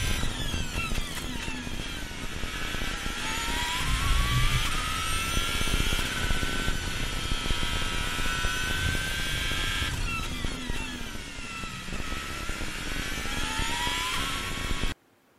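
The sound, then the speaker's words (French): A Formula 1 car engine screams at high revs, its shrill whine climbing in pitch through repeated gear changes, loud and steady for the whole stretch with no voices. “Ouais, c'est une Formule 1 et je te dirais même, je veux jouer sur un moteur de Renault.”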